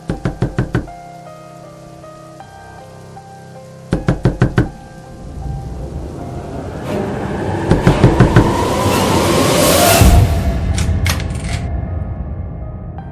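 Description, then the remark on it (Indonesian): Rapid bursts of loud knocking on a door by a woman at midnight, several blows per burst, over steady heavy rain and a rising rumble of thunder that swells and crashes midway. “ketika mengetahui kekasihnya lah yang sedari tadi menggedor pintu.”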